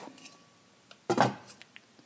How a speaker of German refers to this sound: Pfanne ist erhitzt. Wir haben Induktion, das geht rucki Jetzt 15 cm. Ich würde jetzt nicht meine Hand dafür ins Feuer legen, dass es wirklich 15 cm sind gieße ich da was ein und dann kommt der Deckel drauf.